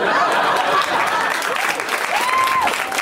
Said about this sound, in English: So I like that you guys clapped as opposed to just then suddenly getting uncomfortable because you're like, oh, I would take that home.